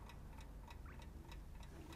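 A clock ticks steadily at a brisk, even pace, its sharp clicks crisp against a low background hum with no one speaking.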